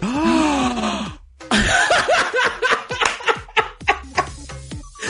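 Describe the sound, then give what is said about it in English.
Two voices let out a loud, drawn-out, dramatic gasp together, then a sharp intake of breath breaks into a run of rhythmic, bursting, lively laughter. “We did the gay gasp at the same time.”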